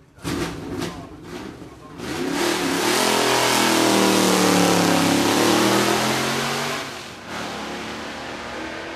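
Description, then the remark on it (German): A car engine misfires with a few sharp popping bursts, then revs up into a loud, sustained, rising roar that holds steady before dropping back to a rough idle. No one speaks. “Und dann halt auch immer dieses. Die Fehlzündung, ne?”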